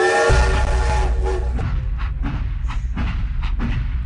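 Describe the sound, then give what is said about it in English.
A train rolls along the tracks on a journey from Hull to Liverpool, with a heavy, steady low rumble, brief clatters and thumps breaking through, and a tonal horn-like hum sounding during the first second or so. “It's back on the train now, though.”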